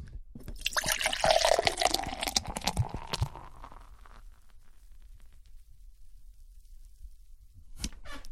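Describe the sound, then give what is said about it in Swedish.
Beer pours into a glass, a bubbly liquid rush with fizzing and glugging for a few seconds, then quiet foam hiss before a brief clink near the end. “Ska inte du också hälla upp en sån? Jo, jag kanske gör det.”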